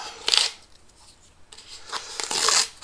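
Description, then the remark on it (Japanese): Crinkly paper rustling and tearing as a paper wrapper is peeled off a plastic cup, in two fairly loud bursts with a quieter pause between, no voices. “この分別ああこの巻いてある紙が紙ゴミで中身のカップはプラゴミだちゃんと分別できるようになってる素晴らしい”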